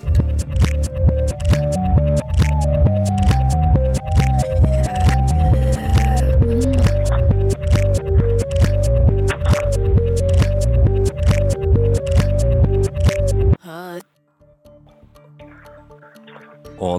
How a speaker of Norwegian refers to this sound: Hvis du syns det var lett med litt eh, nymotens musikk baklengs